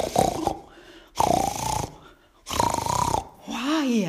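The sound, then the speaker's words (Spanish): A voice mimics loud snoring in three drawn-out, rasping inhales with short pauses between, then ends in a wavering vocal sigh. “Y de vuelta se tiró a dormir y durmió mucho más profundamente que la primera vez, tanto que empezó a roncar de una manera”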